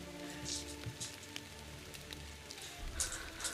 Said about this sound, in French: C'est beaucoup de dés là, que j'entends.